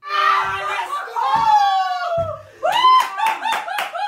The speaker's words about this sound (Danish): Ja, sådan lyder det, når vores statsminister jubler begejstret.